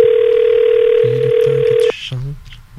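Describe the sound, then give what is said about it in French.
A telephone line rings with one long, steady tone lasting nearly two seconds, then cuts off abruptly. A voice murmurs faintly beneath the tone and continues briefly after it stops. “ça sonne donc bien longtemps.”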